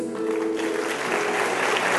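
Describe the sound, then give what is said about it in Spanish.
A crowd bursts into sustained applause, dense and steady clapping filling the space for the full couple of seconds, with faint voices mixed in at the start. “¿Y por qué no le aplaudes?”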